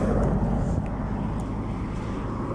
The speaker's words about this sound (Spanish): así como ahorita van pasando coches muy cerca